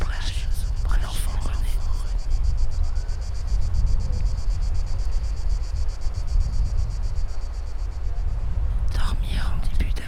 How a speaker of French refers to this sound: Le chant des cigales s'ébruite sous nos pas.